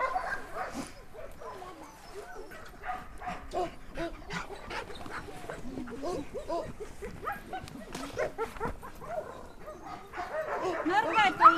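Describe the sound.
A crowd of harnessed sled dogs bark and yip eagerly in a dense, nonstop chorus, wanting to set off, the loudest being those left behind in their kennels, with a few whines mixed in and people talking underneath.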